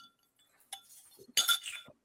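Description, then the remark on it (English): Glasses clink together in a toast: a light tap, then a louder, brighter clink that rings briefly, with faint murmuring in between. “Yes, guys, get your glasses, your cup, your blunts, whatever you have so we can end this on a toast. Clink, clink.”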